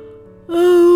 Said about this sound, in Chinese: 过了一会儿，大野狼就假装困了，打了一个大哈欠